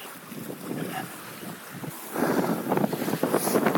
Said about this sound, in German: Also für den Wind kann ich hier beim besten Willen nichts. Damit müsste ihr jetzt einfach leben.